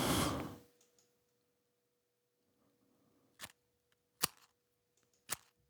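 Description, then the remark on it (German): A match being struck to light a fire: a brief fizzing flare at the start, then three sharp, scratchy strikes spaced about a second apart, fairly quiet, with no talking. “Pass auf, ich habe hier meine, mein Streichholz.”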